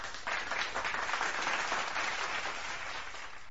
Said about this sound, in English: Hold up. Ow! Oh shit, that was the wrong one. I'm supposed to press the applause button.